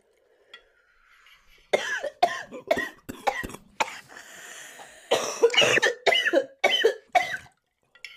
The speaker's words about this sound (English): Your favorite part of the podcast when both of us are coughing into the mic.